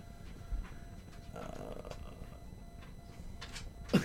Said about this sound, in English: Why'd you let the dog back in?